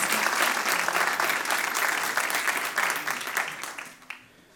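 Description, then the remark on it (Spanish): Loud, sustained applause from a crowd, dense rapid clapping that holds steady for about four seconds before thinning out and fading near the end. “Dale ese fuerte aplauso aplauso.”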